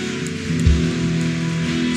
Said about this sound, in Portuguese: Você pode aplaudir? Pode aplaudir? Aleluia!